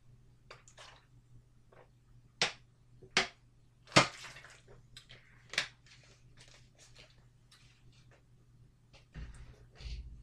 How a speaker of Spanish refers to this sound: Bebo agua y ya, ya vamos con ellos.